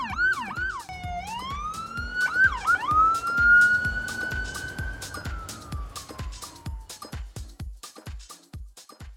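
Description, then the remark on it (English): An ambulance siren yelps in quick warbling sweeps, then stretches into a long rising and falling wail that fades, with a steady rapid clicking beat running underneath. “We got an ambulance and whatnot.”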